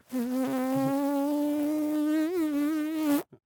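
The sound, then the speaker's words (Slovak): A voice imitates a fly's buzz with a steady, droning hum that holds for about three seconds with a slight waver, then cuts off abruptly, followed by a faint click. “že niekto začal robiť muchu, že teraz si zabil tú muchu”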